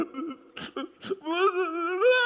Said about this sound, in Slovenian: Gospod, gospod dajte no. Ne jokajte.